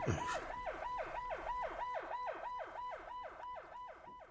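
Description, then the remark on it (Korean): An emergency vehicle siren yelps as it approaches at night, in a fast, repeating rise-and-fall cycle, about two sweeps per second, loud and steady throughout with no voices. “아, 사이렌이 기스고 오는데 오겠어 잠이?”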